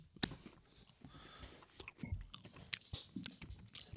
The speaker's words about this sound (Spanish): Lo, trago como una oca. Ay, Dios mío, no sé qué suena peor grabado con los auriculares puestos.